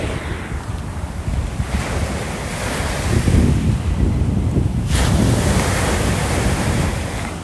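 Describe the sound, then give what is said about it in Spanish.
Ocean waves crash and wash onto the shore in steady, rolling surges, loud, with gusty wind buffeting the microphone throughout. No one speaks. “Escucha el Mar”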